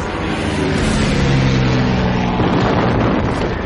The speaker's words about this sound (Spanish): Los aviones. Terrible, terrible. Los aviones caían en picada sobre nosotros, como rayos de luz. Salían las balas por todas partes.